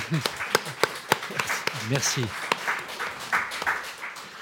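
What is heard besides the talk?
audience applause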